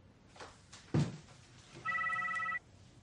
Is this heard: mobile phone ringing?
yes